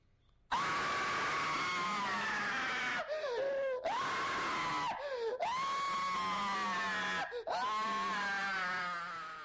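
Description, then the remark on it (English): A loud, sustained human scream recorded for a radio show, with wavering pitch, broken into several long shrieks separated by brief gasps, intense with no other sounds. “What was this scream used in? That's for the radio show.”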